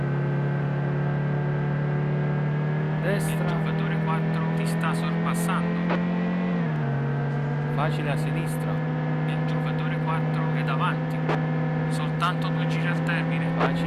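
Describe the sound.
A video game racing car engine, driven at full throttle before hard braking into a left hairpin, drones with a steady, buzzing pitch, which dips briefly and settles again partway through, while talking and scattered clicks sound over it.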